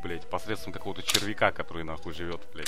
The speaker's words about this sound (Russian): Это был... Так, подожди, стоп, это был звук передергиваем затвора? Передергиваем, да. Да, было бы неплохо. Нет, я батарейки открываю.